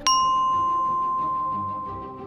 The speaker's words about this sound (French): Elles commencent à paniquer, puis soudain une sonnerie va retentir